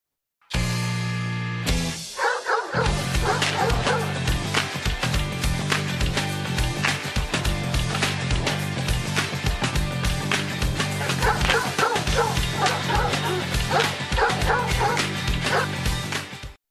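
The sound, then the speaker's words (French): A dog, Max Rokatansky's dog in the second film, barks and yips over and over, with occasional whimpers, loud against a dense, continuous wash of background sound that runs the whole time. “Mon chien préféré de l'histoire du cinéma, le chien de Max Rokatansky, est merveilleux dans le deuxième.”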